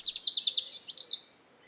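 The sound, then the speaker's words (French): A small bird chirps brightly in reply to a whistle, a quick run of four or five trilled notes followed by a longer twittering phrase, then fading into quiet. “Corail lui répond en piaillant gaiement.”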